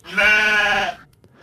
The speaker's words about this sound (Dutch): Dat is een schaap op stal. Die denk ik hetzelfde zegt. Maar ja, bij mijn schaap... Weet je nu dat hij op stal staat? hoe heb je dat nu gehoord? Eh, omdat hij precies in een besloten ruimte staat.